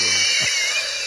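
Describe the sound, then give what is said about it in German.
A brief, low, blubbery fart sounds once, about a tenth of a second long, over a steady high-pitched hiss that runs through the whole moment. No one speaks. “Hast du gerade gefurzt?”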